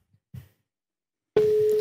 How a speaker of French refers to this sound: Voyons s'il va nous répondre. Coupons la musique et écoutons bien le halo si halo il y a. Je suis tout oui. Deuxième sonnerie, ma Céline.